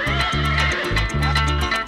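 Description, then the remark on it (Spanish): A ridden horse gallops away across the savanna at night with heavy, rhythmic hoofbeats while a high whinny rises over the pounding. It is loud, with no talking. “El galope del caballo se fue perdiendo poco a poco a medida que iba aumentando la distancia”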